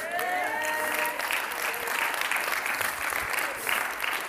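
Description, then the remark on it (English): An audience breaks into steady, sustained applause, dense clapping that holds at an even level throughout, with a brief high-pitched cheer riding over it in the first second. “But this thing about lifting your hands and clapping and standing up and musicians and instruments, and uh, we're right about that.”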